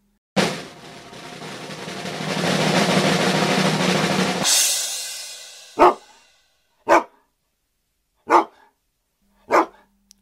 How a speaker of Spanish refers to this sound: Cuatro ladridos. Cuatro, Paul, cuatro.